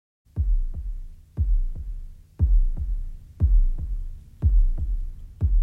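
A heavily muffled bass drum imitating a heartbeat thumps in a steady pattern at the start of a song, double beats repeating about once a second, low and booming with no voices present.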